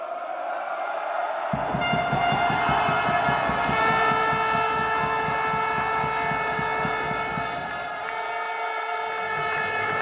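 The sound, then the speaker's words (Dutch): Loud, continuous blare of many horns sounding together in layered sustained tones, with a rapid steady pulsing beat beneath and bright ringing bell notes mixed in, as handball supporters celebrate a championship title in Houten, Netherlands. “alle toeters en bellen bij elkaar.”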